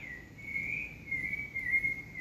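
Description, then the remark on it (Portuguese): A bird sings at dawn in one sustained, thin, high-pitched note that wavers slightly and holds steady for a couple of seconds, fairly quiet over a soft low background rumble. “No canto desse pássaro, na aurora de cada dia, na graça que Deus me permite levantar com disposição, com entusiasmo, aqui estou.”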